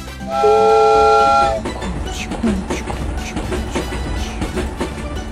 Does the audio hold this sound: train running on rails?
yes